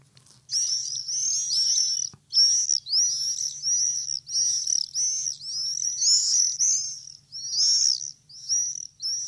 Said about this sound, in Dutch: Een van mijn grote lievelingen boven mijn huis, de gierzwaluw.